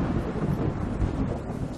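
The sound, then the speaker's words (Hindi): A low, continuous rumble of thunder rolls beneath a steady wash of rainfall, filling the short stretch at moderate volume with no voices. “पता है आज फिर बारिश का मौसम है”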